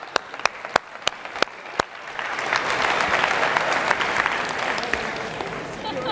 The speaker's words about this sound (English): Okay, thank you. Let's clap it up.